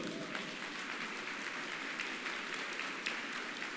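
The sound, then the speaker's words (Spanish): An audience gives the Lord a round of sustained applause, a dense, even wash of many hands clapping at once with steady loudness throughout and no voices standing out. “Da un aplauso al Señor, hermano.”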